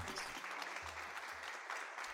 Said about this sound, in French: alors que les corps viennent de s'assagir, que la respiration a repris son rythme apaisé, que le son des derniers applaudissements s'amenuise.